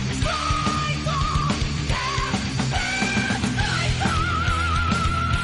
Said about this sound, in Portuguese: porra, pera um pouco, gente, que tá o louro gritando aqui.